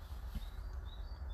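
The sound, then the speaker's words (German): Faint, high bird chirps, a few thin whistled notes over a low, steady rumble of outdoor background noise, heard from inside a Smart car with the windows down on a 19-degree day. “Ihr hört, ihr hört die Vögel bestimmt im Hintergrund.”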